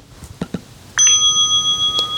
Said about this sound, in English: So the first thing that you should come to on the very, very left button. is an unlabeled button. If you double tap that, it plays the sound of the bell that you currently have selected.